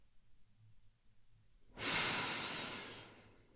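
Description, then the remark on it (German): After a near-silent pause, a single long, deep breath taken in through the nose rushes out slowly through the mouth, steady then slowly fading, with no talking. “Dafür atmen wir tief durch die Nase ein und langsam durch den Mund aus.”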